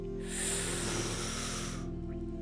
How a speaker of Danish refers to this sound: så trækker vi lige vejret dybt ind.